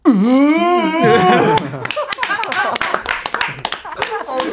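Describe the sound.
A voice playfully mimics the sound of snot being swung around, as in a movie scene where the character Maeng-gu fights with snot: a drawn-out, wavering vocal whoosh, then a quick run of wet clicks and smacking mouth noises, fairly loud.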